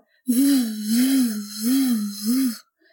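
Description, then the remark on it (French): A voice imitates the pulsing, windy whoosh of tinnitus, like a storm wind, pulsing in time with the heartbeat: a breathy hum that swells and fades about three times in a steady rhythm, fairly loud, with no other sounds. “Je peux comparer ça à un bruit de vent, mais vraiment une tempête, quoi.”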